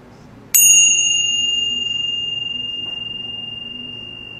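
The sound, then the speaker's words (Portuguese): A single meditation bell is struck once during a guided meditation and rings out with a clear, bright tone that lingers and slowly fades, sustaining for several seconds over a quiet background with no talking. “Mas agora simplesmente desliza na inspiração, se aquieta no centro e quando o sino tocar, não precisa se mexer correndo, simplesmente observa o efeito do som do sino no espaço que a gente está sendo.”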